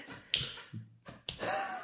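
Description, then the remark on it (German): A chair gives two sharp cracks about a second apart, with a short low creak between them and a rustling shuffle trailing the second crack. Nobody speaks. “Das war wirklich der Stuhl.”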